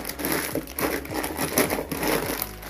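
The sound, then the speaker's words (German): A bag of dry macaroni crinkles and rustles as it is handled, with a dense, crackly patter of the pasta being poured into a cooking pot on the stove, steady and fairly loud for about three seconds with no talking. “So, ein paar Macaroni, hau mal rein.”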